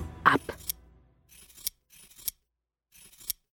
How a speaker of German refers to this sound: Sie nahm eine Schere und schnitt sich die Haare